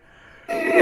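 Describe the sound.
A voice imitates a modem's data tone, the sound of a stream of 0s and 1s modulated into sound: after a faint, quiet hum, a loud, buzzy, screeching burst cuts in abruptly and carries on for under half a second.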